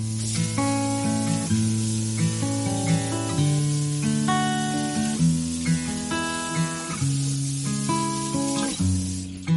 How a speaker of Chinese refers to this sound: 好，到厨房了。嗯，刚好准备了一个雪梨，先把它洗一下。